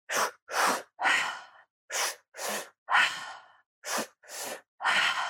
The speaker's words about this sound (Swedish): Och de grundade en andningsteknik där man andas väldigt snabbt, där man syresätter kroppen väldigt intensivt.